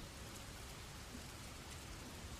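Heavy rain pours down in a steady, dense hiss, falling continuously without letup and with no voices over it.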